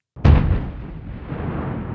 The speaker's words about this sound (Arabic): دوت قنبلة وديما نقزها قلبها بسمع صوت انفجار قنبلة